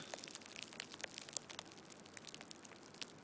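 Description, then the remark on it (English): A small crumpled ball of saran wrap is released and slowly unfurls, giving a steady, fine crackle with one sharper snap midway, used as a sound effect imitating the sizzle of a burning cigarette. “it actually sounds a lot more authentic if you take a small saran wrap ball and release it.”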